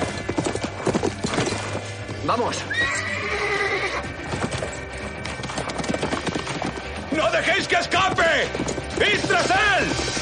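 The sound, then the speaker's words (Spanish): Horse hooves clip-clop steadily while a horse whinnies loudly several times, high neighing calls over the galloping, with people shouting in the background, as the horse jumps a fence and gallops fast through vineyards. “El caballo salta una de las vallas y corre veloz por los viñedos a la vez que comienzan a salir los hombres de Brian.”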